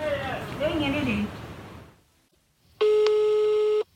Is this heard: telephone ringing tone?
yes